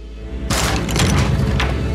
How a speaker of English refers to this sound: The front door crashed open with a bang.